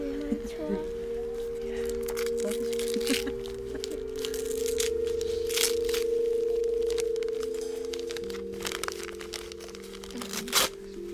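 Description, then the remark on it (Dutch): Paper crinkles and tears in repeated bursts as gift wrap is ripped open to unwrap a large, thick children's book, while a steady tonal melody hums underneath. “Misschien wil jij hem uitpakken naar zijn lied.”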